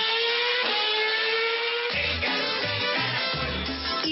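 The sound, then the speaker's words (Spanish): Formula 1 engines roar at high revs at the Austrian Grand Prix, a dense, continuous mechanical whine with shifting pitch, joined halfway through by heavier low rumbling pulses, loud with no voices. “113 días después del fallido inicio de temporada, rugen los motores de la Fórmula 1 con el Gran Premio de Austria.”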